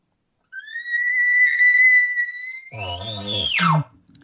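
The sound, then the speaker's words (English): A person imitates a cow elk call: a long, steady high whistle-like mew that ends in a brief, raspy, lower-pitched lip bawl breaking down in pitch, heard alone. “watching the cows do this sometimes she'll even give a slight lip ball at the end believe it or not really she'll kind of give a oh yeah she'll kind of give a little”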